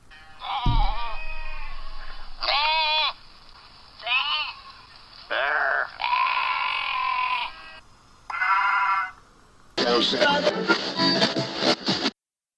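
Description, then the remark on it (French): A series of loud, wavering sheep bleats, about six of them in close succession and some drawn out, ending in a harsher, noisier burst. “Faut que je trouve quelqu'un qui fasse le mouton.”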